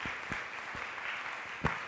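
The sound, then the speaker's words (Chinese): A church audience applauds to welcome first- and second-time visitors, a dense, steady wash of many hands clapping at moderate volume, with a few sharper individual claps standing out, including one louder clap near the end. No one speaks. “呃，前面的哦，我们热烈的掌声欢迎他们，非常非常欢迎他们。”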